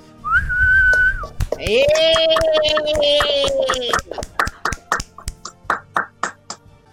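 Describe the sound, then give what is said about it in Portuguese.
A round of applause for everyone as a show signs off. Loud whistling, a short high whistle then a long, lower sustained one, with hand claps running underneath that continue as a quick, steady burst of clapping after the whistling stops. “Nós então, despedimos uma salva de palmas pra todo mundo.”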